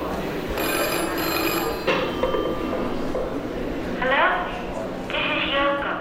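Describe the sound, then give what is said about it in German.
A telephone rings in a singer's 1964 recording, played at the start of the exhibition Music of the Mind: bright, trilling bursts, a sustained electronic ring followed by shorter repeated chirping rings, heard over a low, continuous background murmur. “Gutturale Schreie der Künstlerin, Songs von ihr, mal mehr, mal weniger experimentell oder hier gleich zu Beginn der Schau …, eine Aufnahme von 1964.”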